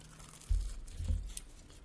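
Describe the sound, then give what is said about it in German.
Quiet crinkling of a wrapper with a couple of soft crunchy bites in quick succession, heard on their own with no talking. “Ich muss jetzt erstmal hier reinbeißen.”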